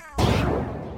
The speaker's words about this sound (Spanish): Un disparo.